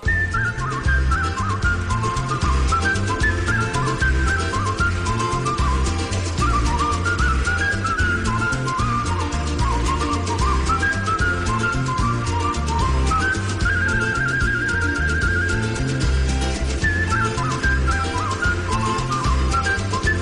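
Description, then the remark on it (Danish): A person whistles a bright, lilting melody over a full, steady musical backing, the tune clear and prominent throughout with no speech. “Men kan de fløjte?”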